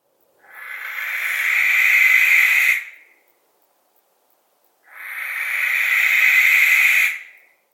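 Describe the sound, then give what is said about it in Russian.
A barn owl gives two long, harsh hissing screeches, each about two and a half seconds, separated by a short silence. The raspy, breathy calls are loud, with no other sounds. “Сипуха.”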